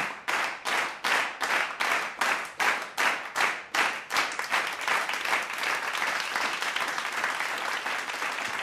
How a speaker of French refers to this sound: À la simple énonciation de l'incident, et sans laisser le professeur terminer sa phrase, le public se mit à applaudir.